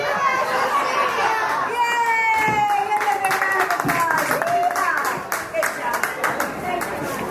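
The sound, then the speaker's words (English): An audience applauds steadily, many hands clapping in a dense, loud patter, while several voices cheer and whoop over the clapping throughout. “applause. That's awesome.”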